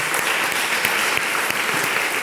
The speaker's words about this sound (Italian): Possiamo fare un applauso alle persone che sono qui per la prima volta, alle persone nuove? Grazie.